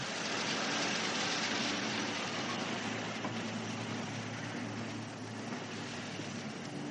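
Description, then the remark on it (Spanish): A taxi drives steadily through a residential area, its engine and tyre noise forming a continuous broad rumble with a low hum that eases slightly toward the end. No one speaks. “Un taxi circula por una zona residencial.”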